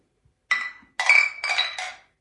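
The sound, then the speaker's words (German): Everyone clinks glasses together once in the middle in a toast: one bright ring, then a quick cluster of overlapping chimes that hang and fade, with no talking. “Wir, wir klongen einmal in der Mitte alle.”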